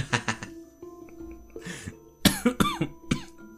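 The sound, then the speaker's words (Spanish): A person coughs repeatedly in harsh bursts: a quick pair early on, then a cluster of three or four rough coughs near the end, with a brief throaty breath between. “Este, no voy a editar esas toses.”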